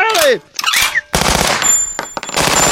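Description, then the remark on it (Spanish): A brief vocal cry gives way to a loud, sustained machine gun fire sound effect: a dense, rapid rattle of shots hammering on for well over a second with a harsh, crackling texture. “pues el padre dijo, todos de pie, sacó su arma de largo alcance”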